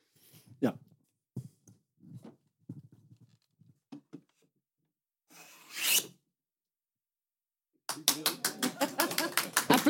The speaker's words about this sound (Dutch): Goed, kan je nog één keer die hoge schaaf doen? Klonk zo mooi, maar iedereen praatte er doorheen.